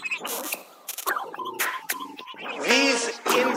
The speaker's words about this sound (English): These bees are very agitated. They get sad. But I don't know if you can hear the sound that they're making. Uh, can you hear the squealing?